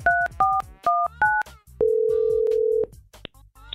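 Four quick two-tone beeps of a phone keypad dialing out on a call from a US 99 radio show, followed by a single long, steady ringing tone and a couple of faint clicks. No one speaks.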